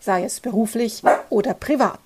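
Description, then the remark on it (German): The speaker's own small dog barks and yips in the background, faint and intermittent, while a person keeps talking clearly in the foreground. “Und wenn du jetzt irgendwie so ein seltsames Geräusch im Hintergrund hörst, dann äh, lass dich nicht davon verwirren, das ist nur mein kleiner Hund, der irgendwie vor sich hin bellt.”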